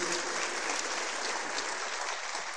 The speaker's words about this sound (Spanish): Démosle un fuerte aplauso, Señor.